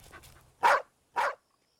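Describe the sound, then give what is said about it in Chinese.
A small yellow dog with its tail curled up, met on a coastal walk, lets out two sharp, excited barks about half a second apart, fairly loud and mid-pitched, after a few softer yips at the start. “还有一只小黄狗。卷起尾巴，兴奋地叫。”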